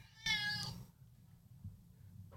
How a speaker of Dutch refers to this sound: Ik wil weten waarom er een kat op Turkije staat. Miauw.